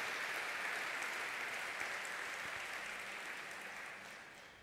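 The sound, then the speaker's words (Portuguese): An audience applauds the Lord in a dense, steady wash of many hands clapping, sustained throughout and gradually tapering off toward the end. “Pode aplaudir o Senhor, porque a sua fé vai ser tocada hoje.”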